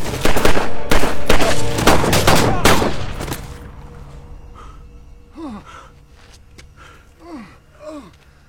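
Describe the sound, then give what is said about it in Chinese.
In a film scene, loud, rapid bursts of gunfire crack out for about three seconds as the protagonist shoots two guards and a colonel, then die away into quieter strained gasps with a few scattered sharp clicks. “男主眼疾手快的解决掉两个卫兵，然后打死了上校。”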